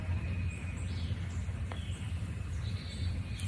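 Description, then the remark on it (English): A Carolina chickadee calls faintly, a few high, thin notes scattered over a steady low rumble of outdoor background noise. “Chickadee dee dee. It's a Carolina chickadee.”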